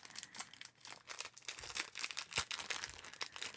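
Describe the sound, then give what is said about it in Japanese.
A continuous, hissing rattle of many small beads spread out and rolling inside a metal colander to imitate waves, swelling and receding like surf washing in, with scattered sharper clicks and no voices. “ザルの中にビーズを広げていますね波じゃないですかこれ”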